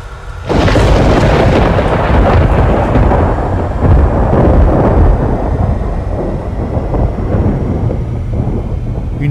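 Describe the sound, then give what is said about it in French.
A lightning strike on a mountain top during a storm bursts in with a sudden, loud crack of thunder, then a heavy, roaring rumble rolls on for several seconds, slowly easing but still loud at the end. “décharge de lumière pure et naturelle venue du ciel attirée par son contraire.”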